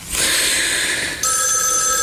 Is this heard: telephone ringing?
yes